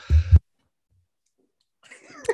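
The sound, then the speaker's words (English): A single loud, abrupt sneeze bursts out, followed by about a second and a half of silence and then faint rustling and breathy movement. “Bless you. Excuse me, I sneezed.”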